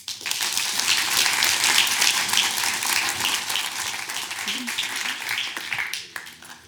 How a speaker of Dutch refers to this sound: Geef me een warm applaus.